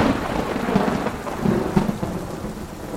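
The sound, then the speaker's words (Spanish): Steady rain hisses over low, rolling thunder that swells and rumbles throughout, a dense stormy wash with no voices. “La niña se refugió durante una semana en las Azores para encontrar, al reanudar la navegación, con otra terrible tormenta.”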